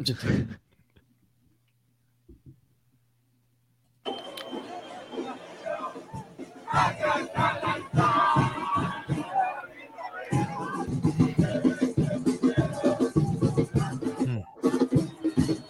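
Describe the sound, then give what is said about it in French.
Near silence for a few seconds, then a lively crowd of football supporters, amusing themselves during a match delay caused by lightning, fills the space with babble, shouts and scattered clapping, swelling louder toward the end. “Il y a eu un délai de, à cause de, des éclairs et, des belles vidéos donc des supporters qui se sont amusés durant cette, cette interruption.”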